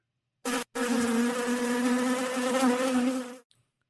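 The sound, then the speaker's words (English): A steady bee buzz drones for about three seconds after a brief opening burst, its pitch wavering slightly, with no voices. “Let's play a little bit of the bee or not the bee.”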